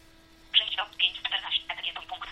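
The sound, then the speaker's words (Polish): A telephone sound of rapid, high-pitched electronic chirps and trills in quick repeated bursts, fairly loud, starting after a brief quiet moment and continuing to the end. “już myślałem, że mi się zburzył telefon.”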